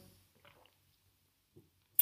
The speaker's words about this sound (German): Und ich möchte euch ganz ehrlich noch etwas verraten, nachdem ich einen Schluck Wasser getrunken habe.